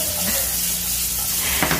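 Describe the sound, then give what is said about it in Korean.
A steady sizzling hiss of vegetables, kimchi and meat being stir-fried in a hot wok, continuous and fairly loud for the whole moment, with a faint low hum underneath and no talking. “자, 달군다, 달군다, 지글지글 뜨겁게 달궈서 볶는다, 볶는다, 야채도 볶고, 김치도 볶고, 고기도 볶고, 웍, 웍, 웍, 웍.”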